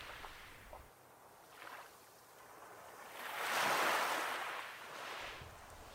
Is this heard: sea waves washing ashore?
yes